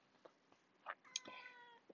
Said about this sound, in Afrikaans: En daar's Fred ons kat in die agtergrond wat ek dink wil saam sing of saam gedigte sê.